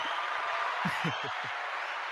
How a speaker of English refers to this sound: whenever I come in, the crowd goes wild.